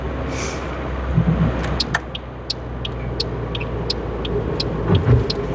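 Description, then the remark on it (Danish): A car engine rumbles steadily as the vehicle drives out near the Grønnemose sign, with a scattering of faint, sharp ticks above the low hum and no voices. “Ja, det er lige hernede, hvor bilen holder, eller kører ud der.”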